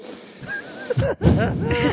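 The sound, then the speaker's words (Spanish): Someone imitates exaggerated heavy breathing, loud raspy huffs with wheezy, voiced tones, running for about two seconds with a short break in the middle. “respirando fuerte, ¿sabes?”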